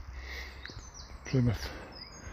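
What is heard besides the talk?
birds singing in woodland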